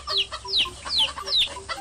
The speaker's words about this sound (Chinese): 琪琪把水准备好，把谷子和玉米撒到地上，小鸡们都欢快地吃了起来。